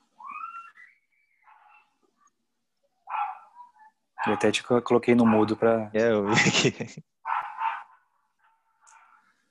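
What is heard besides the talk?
dog barking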